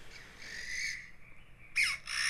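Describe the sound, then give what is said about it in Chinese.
Loud, raspy calls of Taiwan bamboo partridges ring through the forest at Menghuan Lake (Dreamy Lake): a drawn-out call, a brief lull, then a sharp, high burst followed by another harsh call. No one speaks. “在林间中散步的一个景象，这是梦幻湖非常非常典型，我们可以很容易听到的一个声音。”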